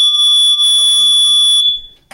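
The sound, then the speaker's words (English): An alarm in a video game blares a loud, steady, high-pitched electronic tone with a few harmonic overtones, holding for about a second and a half before cutting off abruptly. “he, he he's got an alarm just in case.”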